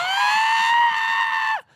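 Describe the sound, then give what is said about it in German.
A voice imitates a scream of delight: one sustained, high, bright cry held steady for about a second and a half, then dropping sharply in pitch as it cuts off. “ich habe laut geschrien, ein Wonne, ein Wonneschrei war das. Äh, ungefähr so ging der.”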